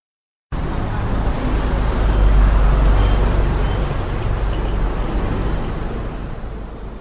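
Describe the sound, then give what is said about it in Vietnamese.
Steady, loud roar of heavy road traffic on National Highway 5 through Hai Duong province, Vietnam, with a deep low rumble of engines and tires swelling as large trucks pass, continuous with no voices. “mật độ phương tiện giao thông, nhất là các xe tải trọng lớn”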